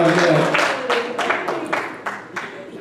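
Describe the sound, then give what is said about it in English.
An audience claps their hands together in a steady, rhythmic beat, many hands sounding at once, with a voice briefly audible at the start. “Everybody that's not, clap your hands.”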